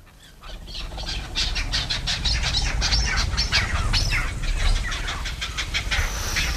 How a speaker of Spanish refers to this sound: Vamos allá, empezamos con una perdiz que lanza una señal de alarma.